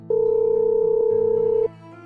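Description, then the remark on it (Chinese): A telephone ringback tone after dialing a number at eleven o'clock at night: one steady, mid-pitched electronic beep held for about a second and a half over a faint low hum, then cutting off. No one speaks. “犹豫再三，他按下了拨号键。”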